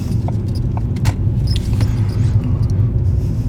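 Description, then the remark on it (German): Deposit bottles in the back of a moving car squeak and rattle in short, irregular bursts over the steady low rumble of the car, with a few sharper plastic creaks standing out. “Hinten quietschen die Pfandflaschen und machen mich wahnsinnig.”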